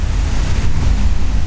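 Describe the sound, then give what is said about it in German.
A thunderstorm with wind: a steady, loud roaring rush with a heavy low rumble underneath, constant throughout with no clear breaks and no voices. “Ja, wir sind bei 501 und wir haben ja ein wunderbares Gewitter, wie ihr hört.”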